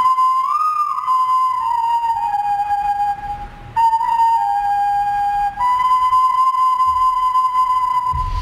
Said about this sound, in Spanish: Aquí tenemos el sonido de la ocarina prehispánica que eh, se la regaló el embajador de Colombia